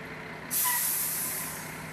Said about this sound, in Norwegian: På driftsstasjonen til det som inntil nylig var Veireno, på Alnabru i Oslo, vrimler det av folk med oransje klær. Søppelbilene fra morgenskiftet er på vei inn og steller seg på rekke og rad på parkeringsplassen.